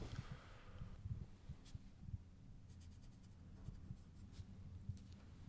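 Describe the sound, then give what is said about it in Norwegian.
Squeaky scratching of a black felt-tip marker dragged across paper in short irregular strokes, with soft taps between them; no one speaks. “Da har du funnet fram en svart tusj.”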